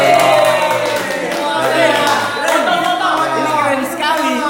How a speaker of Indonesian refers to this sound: Terima kasih buat teman-teman semua udah sharing-sharing malam hari. Tepuk tangan dulu dong untuk kita semua.